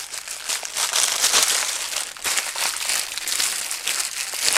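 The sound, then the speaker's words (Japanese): A plastic garbage bag is crinkled and rustled continuously, producing a dense, crackly, hissing texture with irregular bursts of louder crumpling throughout, with no talking. “思ったより小さいゴミ袋だったこれじゃないじゃんこっちかこっちだ”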